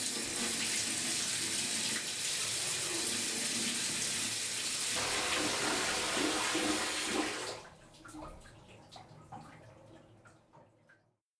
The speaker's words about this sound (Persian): بعدش خودم رو مجبور کردم که چند دقیقه زیر آب گرم بمونم